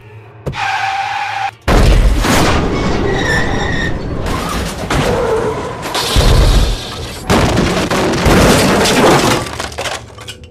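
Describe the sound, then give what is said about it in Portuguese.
A loud car crash as a car skids diagonally: a brief high screech gives way to a violent impact, then sustained crunching, scraping metal and breaking glass that keeps rumbling and clattering for several seconds, with no voices. “Seu mundo se torna dor, em uma cacofonia de metal guinchando.”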